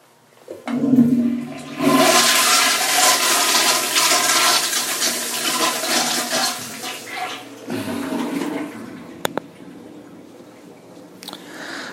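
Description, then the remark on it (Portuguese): A toilet flushes, a loud rushing surge of water that swirls for several seconds, then drains and gurgles as the tank refills, with a brief sharp clack near the end. “Eu vou dar uma descarga, vocês vão ouvir”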